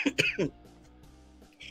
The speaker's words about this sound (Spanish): Y entonces, comadre, pues estás en el aire acondicionado y luego sales al calor y luego entras otra vez al aire acondicionado y ya nos dio la tos.